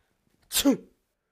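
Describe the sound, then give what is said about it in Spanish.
A single sharp sneeze bursts out, a quick hissy onset followed by a short voiced tail, then silence. “Salud. Gracias.”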